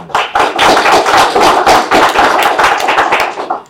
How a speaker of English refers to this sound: First applause.